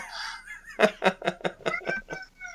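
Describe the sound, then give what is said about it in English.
A cat meows in a rapid string of about eight short, insistent calls, fairly loud, preceded by a brief higher-pitched cry, with no talking. “The first cat, the first cat review of a horror movie.”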